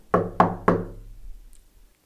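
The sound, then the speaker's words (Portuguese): Three firm knocks on the wooden door of a house in quick, even succession, fairly loud, with a short resonant decay after each and quiet afterward. “Certo dia, bateram na porta da sua casa.”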